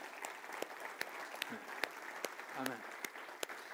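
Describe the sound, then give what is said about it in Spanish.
An audience claps steadily in applause for the Lord, with sharp individual claps standing out over a dense bed of applause and brief vocal exclamations, sustained at a moderate level throughout. “¿Por qué no le damos un aplauso fuerte, fuerte al Señor?”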